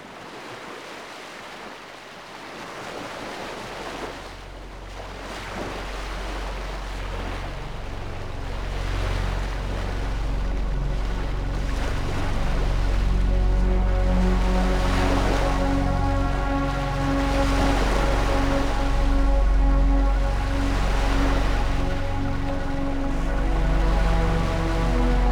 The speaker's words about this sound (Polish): kilku dni morze było bardzo spokojne.